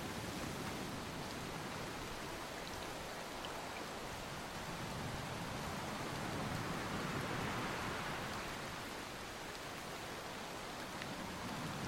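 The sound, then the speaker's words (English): Heavy rain pours down during a brutal storm at a lighthouse, in a steady, dense hiss across the whole stretch, swelling slightly midway, with no voices or other distinct sounds breaking through the downpour. “In the brutality of this storm, he was feeling more romantic about this lighthouse than anyone ever could.”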